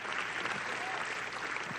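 A crowd claps steadily, giving an applause to the Lord, a dense wash of many hands applauding at an even level for a couple of seconds with no voices standing out.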